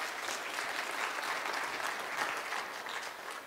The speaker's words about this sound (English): But we're really glad that we had the children. We thank you very much. Let's give the kids a round of applause and thanks